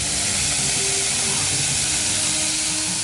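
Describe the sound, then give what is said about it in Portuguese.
A harsh, hissy running-water sound effect plays steadily for a few seconds, a loud continuous rush of static-like noise with no voices over it. “Isso é pra ser um barulho de água correndo, mas é horrível.”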